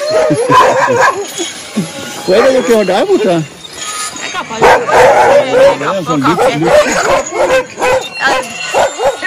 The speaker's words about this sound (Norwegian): Ja, vi går tilbake igjen, så jeg tror det blir veldig mye bjeffing hvis vi står her.